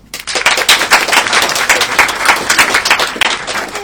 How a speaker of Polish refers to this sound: Yy, ja, ja mam tutaj klaskomierz, Państwo zaczynacie bić brawo, sprawdzimy to, proszę bardzo.